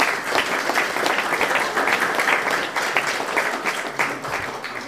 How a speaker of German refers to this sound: Danke für deine Arbeit. Applaus dafür.